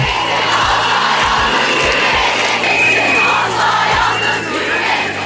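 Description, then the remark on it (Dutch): A crowd of hundreds of women protesting in the street against Turkey's withdrawal from the Istanbul Convention, a loud, dense wall of shouting and chanting voices that holds steady throughout, with scattered low thumps underneath. “Honderden vrouwen gingen de straat op om te protesteren.”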